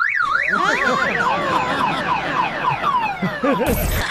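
A car alarm blares in rapidly rising and falling electronic sweeps, loud and continuous, with several overlapping whooping tones cycling for the whole few seconds.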